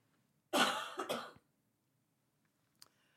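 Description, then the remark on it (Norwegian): An emotional cough bursts out loudly in two quick harsh pulses, followed by silence and a faint short sound near the end. No one speaks. “Emosjonell host fra meg.”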